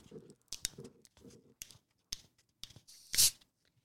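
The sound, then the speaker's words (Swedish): The plastic cap of a Bonaqua bottle is twisted open: a series of small crackling clicks, then a short, loud hiss of escaping gas near the end. “Kanske hörde också att det var en flaska.”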